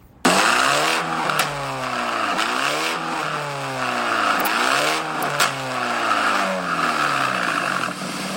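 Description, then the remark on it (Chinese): An engine fitted with an SM-brand aftermarket exhaust revs repeatedly, its pitch sweeping up and down in several loud surges over a constant rumbling drone with a raspy, noisy edge. No one speaks. “好，那我再给你听另外一个，就是我们刚才那个 S M 那个品牌。”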